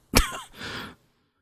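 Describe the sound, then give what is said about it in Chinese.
A man coughs once, a sharp harsh burst followed by a rougher, breathy rasp, all over in under a second with no talking around it. “他有咳嗽的毛病，一着急就咳个不停。”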